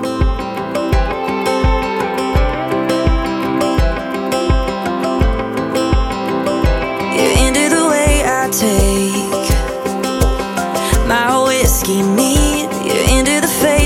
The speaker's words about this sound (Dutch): waar het de hoogste tijd is voor een lekker stukje country.